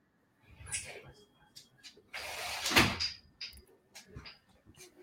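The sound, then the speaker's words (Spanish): A door is pulled open to let in a female dog that had been banging on it, with a short, loud rattling scrape, surrounded by softer knocks, clicks and shuffling movement. “Y fíjate que solo voy a dejar entrar a mi chucha que me estaba de somatar la puerta, ya que somos tan perreros, dame un segundito.”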